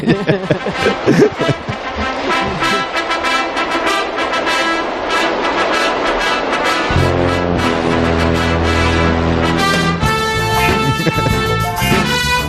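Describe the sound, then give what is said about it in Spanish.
Rousing orchestral theme from a boxing film set in Philadelphia, with punchy rhythmic strings and drums that swell into loud, sustained brass fanfare chords, filling the whole clip with no talking. “Y de ahí salta a la gran pantalla de la forma más gloriosa con un héroe de clase obrera que tiene que subir unas escaleras en Filadelfia y suena así.”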